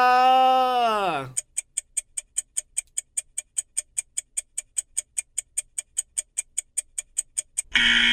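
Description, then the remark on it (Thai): A countdown timer effect, timing children thinking of an answer to a quiz question, ticks steadily, roughly two dozen crisp, bright clicks at a brisk even pace, following a brief sliding vocal tone and cut off as another sound begins. “หมดเวลาแล้ว”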